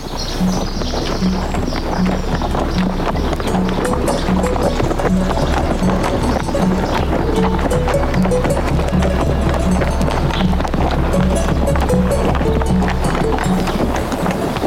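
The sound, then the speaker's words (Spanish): Horses' hooves clip-clop on a trail in a steady, regular rhythm throughout, fairly loud, over a constant low rumble, with no other sounds standing out. “Pues por donde pasan los caballos, los carneros y las vacas, pasaremos nosotros, no faltaba más.”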